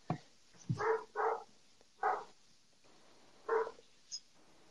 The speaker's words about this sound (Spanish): Eh, me acabo de desconcentrar por el perro que suena de fondo. Eh, se oye poquito, pero no te preocupes. Se oye poquito.